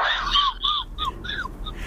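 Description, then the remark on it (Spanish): A dog lets out a quick run of short, high-pitched yelping barks, several in a row, with no one talking over them. “Lindo pulgoso, el perro pulgoso fue, te estaba riendo.”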